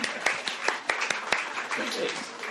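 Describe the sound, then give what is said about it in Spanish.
A crowd applauds, a dense steady wash of clapping with a few sharper individual claps standing out, holding an even, moderately loud level for a couple of seconds. “Un aplauso”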